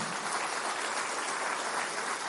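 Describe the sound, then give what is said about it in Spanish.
A church audience applauds the King of Glory, many hands clapping in a dense, continuous wash of sound that holds at an even level throughout, with no voices rising above it. “Dale aplauso al Rey de Gloria”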